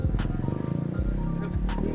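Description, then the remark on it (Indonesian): A noisy motorbike goes by, its engine droning low and steady with pitch swells and a couple of sharp raspy bursts, loud throughout with no talking. “motor berisik”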